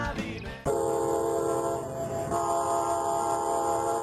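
A train sounds, a loud sustained horn blaring over a steady rumbling roar after a brief lead-in, holding for several seconds with no talking.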